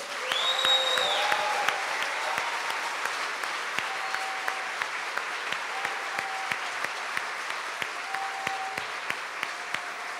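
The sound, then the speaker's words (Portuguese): A church audience gives a sustained round of applause to God, the King of Kings, steady dense clapping throughout with occasional sharper individual claps and faint tonal voices or cheers rising briefly at the start. “Salva de palmas ao Rei dos Reis.”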